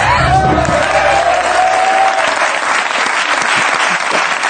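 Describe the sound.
Loud, dense applause for someone who hit it just right in the video, a steady wash of many hands clapping throughout, with a brief whistle-like tone and a few voices mixed in at the start.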